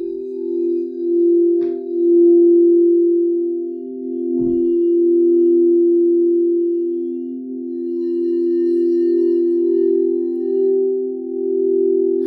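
Singing bowls ring during a guided meditation with a steady, low humming tone that sustains throughout, loud and wavering slightly, with two brief soft strikes early on and no voices.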